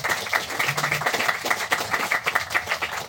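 An audience applauds panel debate participants steadily, a dense wash of many hands clapping at once with sharp irregular slaps, sustained throughout at an even, fairly loud level with no voices.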